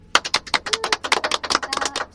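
A short burst of applause from a small group, sharp, crisp claps landing in a quick, irregular patter for about two seconds, with no voices over it.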